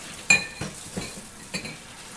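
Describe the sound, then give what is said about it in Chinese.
Thick cup rims knocking together in a few light, uneven clinks, the first sharpest with a brief bright ring, the later taps duller and softer, with no one talking. “要把那靠这个就是两个杯缘比较厚的地方靠在一起。”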